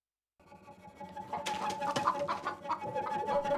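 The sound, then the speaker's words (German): Chickens cluck and fuss in a wooden coop, a steady busy chorus of short clucks and murmurs with occasional sharper calls, starting after a brief silence and continuing throughout. “Die Hühner rumoren im Holzverschlag.”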